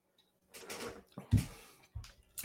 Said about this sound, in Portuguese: Deixa eu só tomar um golinho de água aqui.